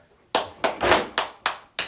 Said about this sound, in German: Sechsmal geklatscht und weißt du, was passiert ist?